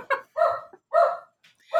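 A dog barks in a quick run of about four sharp barks with short gaps between them during a sudden thunderstorm, and no one is talking.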